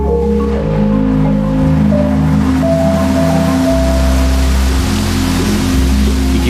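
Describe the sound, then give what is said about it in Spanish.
Steady, dense rain hisses evenly throughout, mixed with low sustained droning tones that shift pitch every few seconds like an ambient musical bed. No voices are present. “estruendo no es el sonido más representativo de aquella tragedia que marcó el final de la Segunda Guerra Mundial, sino este, este, la lluvia.”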